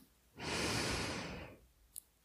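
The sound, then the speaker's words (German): A single deep inhalation, the last deep breath of a guided meditation, long and airy, rising quickly and holding steady for about a second before fading, with no talking, followed by a faint brief click. “Und wir atmen noch ein letztes Mal tief ein”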